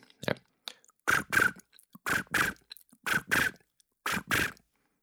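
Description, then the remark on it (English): A foley imitation of crickets: crisp, scratchy bursts arriving in pairs at a steady pace, about one pair per second, fairly loud, with no talking. “Oh, that'd be uh, uh crickets.”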